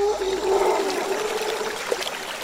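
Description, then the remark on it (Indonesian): River water flows in a steady, continuous burble and trickle at moderate loudness, with a faint sustained tone humming underneath; no voices are present. “Hari-hari berikutnya, Landi hanya melamun di tepi sungai.”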